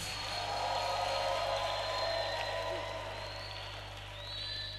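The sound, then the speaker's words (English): An audience claps and cheers for the Lord before the preaching, in a steady, sustained wash of applause with scattered shouts and whoops, holding for several seconds before easing slightly at the end. “Before I start preaching today, oh, I think you should clap for the Lord one more time.”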